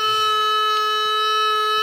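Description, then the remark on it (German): A sustained, steady horn blast from a toy noisemaker, holding one bright buzzing tone with stacked harmonics for about two seconds at a loud, even level, with no talking. “Ich hole nochmal meine Tröte raus”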